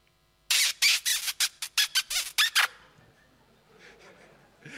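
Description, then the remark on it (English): A rapid string of about ten loud kissing smacks under the mistletoe in quick succession, each short and sharp, followed by a few seconds of quiet. “Yes, the sound of kissing under the mistletoe.”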